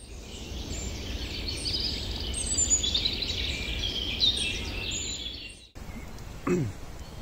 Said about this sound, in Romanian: Iată, dragii mei, că ne vedem iar. așa în zgomotul de primăvară, cum se spune, în aerul de primăvară, ciripitul păsărilor, deci toată atmosfera de primăvară.